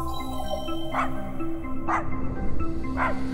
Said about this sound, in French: Viens vite, Rémi Marion est de retour avec ses chiens et son traîneau.